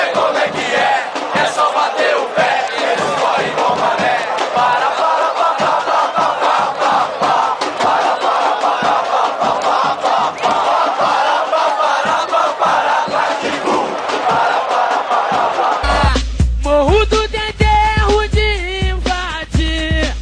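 A huge stadium crowd of football supporters loudly chants a funk song in unison, a dense roaring wall of voices with a driving rhythm, shifting near the end to sharper, more melodic singing.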